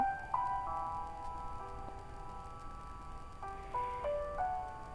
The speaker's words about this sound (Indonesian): cuaca di Jogja lagi hujan nih kalau di kota kalian gimana hujan juga atau malah panas terik